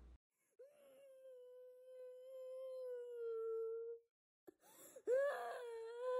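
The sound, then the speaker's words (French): A child or baby wails relentlessly in the distance in a forest: one long, steady, drawn-out cry, a brief pause, then another cry that rises sharply in pitch. No talking. “Cela ressemblait à un enfant, peut-être même un bébé, pleurant sans relâche.”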